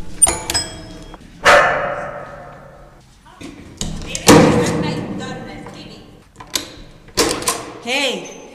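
A bull terrier named Vivi barks loudly in an apartment on the fourth floor of a building in central Jakobstad, a few sharp, separate barks spread across several seconds, with thumps and shuffling noises in between.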